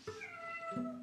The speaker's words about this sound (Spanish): Ese es mi gato que aúlla.